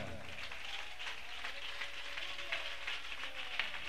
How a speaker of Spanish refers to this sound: A su nombre. Palmas al Señor en esta hora.